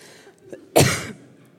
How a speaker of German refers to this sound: Ich habe Husten.